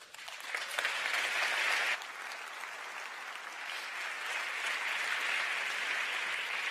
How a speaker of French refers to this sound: Ah, ah Tout le monde n'a pas applaudi, hein